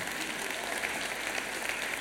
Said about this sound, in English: Now give the Lord a clap offering. Amen.